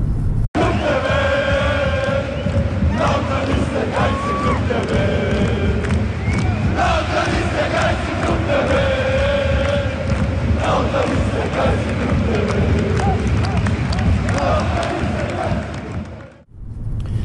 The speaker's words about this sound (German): So sieht das aus, wenn die Fans ihre Mannschaft feiern und das mit dem Handy abfilmen.